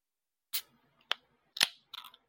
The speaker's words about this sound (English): Yes, the the very same same sound that you hear at the beginning of the Steel City Blitz podcast. But now, by the way, uh, a a can opening.